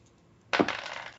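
Two dice tumble and clatter across a hard surface in a short, bright rattle that starts abruptly, then fades out after about half a second, with no voices.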